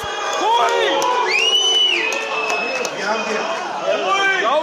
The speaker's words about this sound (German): Und bei den Buhrufen ist es auch nicht geblieben.